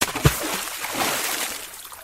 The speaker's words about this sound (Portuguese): a terra lançada aterrissou no meio do mar voando água para todos os lados.